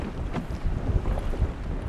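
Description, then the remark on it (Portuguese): Strong wind buffets the microphone outdoors on a boat, a steady, loud rumbling roar with gusty low thumps and a constant hiss, and no voices are heard. “Embora esteja ventando bastante, né?”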